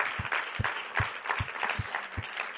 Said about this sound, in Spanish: ¿No merece un aplauso?